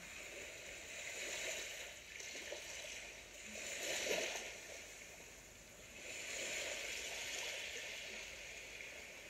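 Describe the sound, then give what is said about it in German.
Soft sea water laps and washes in slow, gentle swells that rise and fall a few times, a quiet, steady hiss with no voices. “Nehme deine Umgebung wahr und schenke dem Meer ein Lächeln.”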